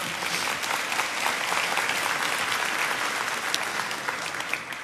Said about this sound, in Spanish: ¿Cuántos pueden aplaudir a Jesús esta mañana de verdad?